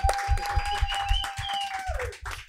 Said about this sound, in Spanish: Un aplauso. Un gustazo estar aquí.